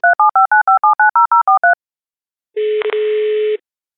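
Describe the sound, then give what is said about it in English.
A quick, evenly spaced run of about eleven telephone keypad beeps dialing a guest, then a short pause and a steady one-second phone line tone with a brief click partway through. Loud and clear, with no voices. “And so let's dial him in.”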